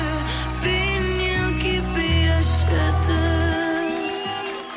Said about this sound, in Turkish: Oh şarkıya bak. Bu kızın sesi çok güzel.